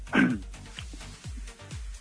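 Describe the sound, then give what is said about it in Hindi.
Dogs bark behind a caller on a phone line: one sharp bark up front, then a few lower, muffled barks repeat at a steady pace in the background. “आपके पीछे कुत्ते बड़े भोंक रहे हैं क्या वजह है”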